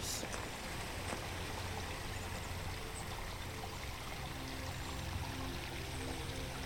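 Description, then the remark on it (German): Steady rushing and bubbling of a river flowing close by, with continuous splashing and gurgling water and no voices, holding an even loudness throughout. “Du schlenderst am Flussufer entlang und kannst zusehen, wie das Wasser neben dir sprudelt und plätschert.”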